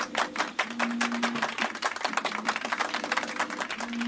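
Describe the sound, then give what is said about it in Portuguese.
A small group of co-workers in the orange sector's changing room applauds a colleague with steady, dense clapping that carries on for the whole stretch at a moderate level, with a faint low hum underneath and no talking. “Palmas para a colaboradora!”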